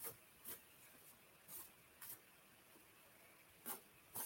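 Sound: shuffling tarot cards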